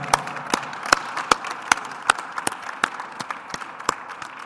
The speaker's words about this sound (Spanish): Ya está, ya está. Un aplauso.